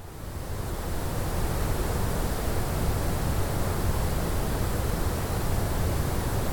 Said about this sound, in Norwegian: så, så altså, den lyden de um, vil at vi skal uh, lytte til, er da eh, rett og slett uh, støy.